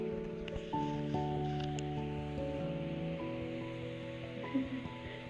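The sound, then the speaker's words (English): Capsicum sizzles in a frying pan while capsicum Maggi is being made, a steady crackling hiss that runs the whole time at moderate volume, with a sustained tonal hum layered underneath and nobody speaking. “Basically, this is my first time uh, making my first time making capsicum maggi let them hear the sizzle a little bit right”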